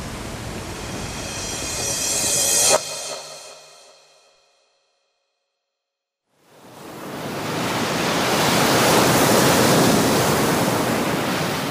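A roaring rush of surf builds and then abruptly cuts out, leaving a couple of seconds of silence before a second loud, sustained wash of crashing waves swells back in.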